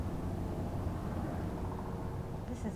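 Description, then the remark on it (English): A helicopter owned by security hired by TMX to patrol the area hovers and circles overhead at the shores of Burrard Inlet, its steady low rumble filling the air in a continuous drone that neither fades nor builds, with no clear voices over it. “a helicopter owned by security hired by TMX to patrol the area was hovering nearby.”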